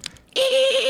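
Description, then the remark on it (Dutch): A voice imitates a squeaking brake with one loud, sustained high-pitched squeal. It starts abruptly after a brief quiet moment and holds steady, wavering slightly, until the end. “Ja, nog één keer de, piepende rem.”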